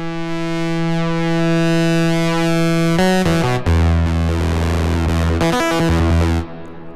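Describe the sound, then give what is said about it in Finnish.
A sustained synth tone thick with harmonics runs through a filter and grows gritty with soft tube distortion as the signal level is raised, then breaks into shifting distorted chords before cutting off near the end, with no talking. “Nyt se on jo aivan säröllä, mutta mm.”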